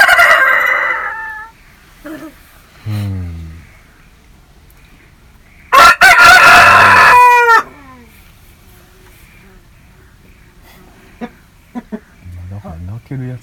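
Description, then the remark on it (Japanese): A rooster crows loudly, one long strained cock-a-doodle-doo cutting through, with a couple of people chatting softly before and after it. “メスは全く鳴かないんですっけうんこういう鳴き方はせんわな。”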